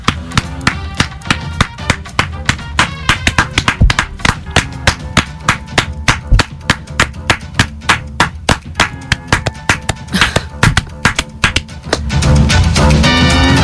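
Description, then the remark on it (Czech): Hands clap loudly and repeatedly for over ten seconds in a quick, slightly uneven rhythm with no voices, then the clapping gives way to a brief burst of steady rushing noise. “Já tleskám, já tleskám.”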